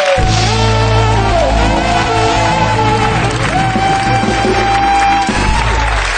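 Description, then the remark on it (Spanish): A loud, steady wash of audience applause at the opening of the sixth season of the show Leitmotiv fills the whole stretch, with cheering mixed in and a tonal hum running underneath, dipping briefly near the end before swelling again. “Este año les he dicho a los cómicos del programa que si no sentéis, porque así ya estáis, va a aplaudir ahora también.”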